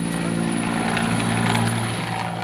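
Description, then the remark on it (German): The president's helicopter roars steadily overhead, flying from the adjoining presidential palace into a cloudless sky, its loud, continuous rotor drone and engine hum filling the air throughout with a broad, rumbling texture and no voices. “Der Hubschrauber des Präsidenten fliegt vom angrenzenden Präsidentenpalast in das wolkenlose Nichts.”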